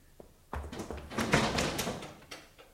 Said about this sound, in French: Et elle ferma la fenêtre. Le loup, qui avait déjà bondi pour sauter dans la chambre, se cassa aussitôt le nez contre les carreaux.